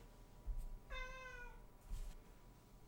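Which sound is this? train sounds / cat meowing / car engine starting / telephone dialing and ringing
cat meowing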